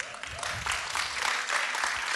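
An audience applauds steadily, a dense wash of many hands clapping at moderate loudness that holds fairly even throughout, with no voices standing out.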